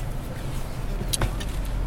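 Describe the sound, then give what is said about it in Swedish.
A rough motorcycle engine idles with a steady, throaty low rumble, with a brief rattling clatter just past the midpoint; no one speaks. “Eh, det var alldeles för stökigt ljud. En motorcykel tycker jag nästan ska”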